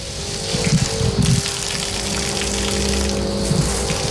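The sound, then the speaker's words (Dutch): A cow urinating heavily in a barn: a strong, steady gush of liquid splashing down for several seconds over a faint constant mechanical hum. “Een flinke plas, koe, klopt helemaal.”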